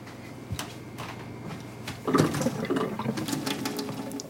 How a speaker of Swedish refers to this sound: Så vi måste kolla upp det här med vattnet. Jag testar kranen i köket.